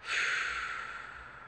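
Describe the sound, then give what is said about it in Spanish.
A single long, fairly loud, airy breath, rushing steadily for over a second before gradually easing off, a deliberate exhale through the mouth after inhaling through the nose during a guided breathing exercise. No one speaks. “Lentamente empieza a intensificar tu respiración, inhalando por la nariz y soltando por la boca.”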